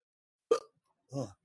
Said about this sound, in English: Yeah, talking about this got gave me the damn hiccups.